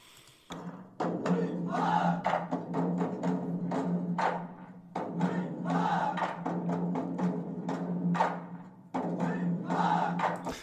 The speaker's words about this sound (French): Voilà, c'est ça. Leur chanson, c'est hi ah avec des mecs qui font du tambour et des mecs qui, qui, marchent au pas dans les rues de dans les rues du Tonkin en fait.